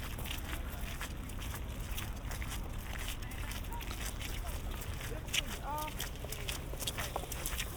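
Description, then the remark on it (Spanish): Footsteps crunch steadily over small pebbles in an even walking rhythm while crossing a new bridge linking Slussen with Södermalm in Stockholm, set against a constant low rumble of cars passing on the right, with a brief faint voice partway through. “Aquí hay más piedrecitas, se escuchan.”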